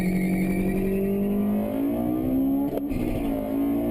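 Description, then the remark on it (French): An Integra Type R engine revs hard up to 9000, its loud, steady drone climbing in pitch over several seconds, with a brief sharp click partway through and no voices. “C'est un Integra type R.”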